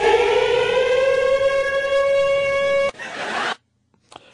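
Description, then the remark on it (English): A loud, steady civil defense siren sound effect wails at a sustained pitch for about three seconds, then cuts off into a brief burst of noisy rush before falling silent. “Remember that every time I used to hit that siren, Dave and Fez would automatically get their pens and run for the cowbells because they would be like, "Yes, I'm ready right now.”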